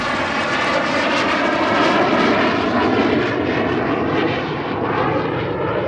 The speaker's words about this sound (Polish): Jesteśmy tutaj przy hangarach, gdzie są hangarowane m 346 Bielik, Mastery. E, samoloty szkolno-treningowe, odrzutowe. Właśnie jeden przelatuje. Touch and go. Potężna moc, jak słychać. Ląduje się i od razu się startuje.